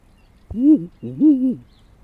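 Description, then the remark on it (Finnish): A person imitates a Ural owl with two low, rounded hoots in quick succession, each swelling and falling slightly, against a quiet background. “Eli huuhka ja viirupöllö, niin ne, ne tulee, jos ottaa vaikka viirupöllö ensin, niin”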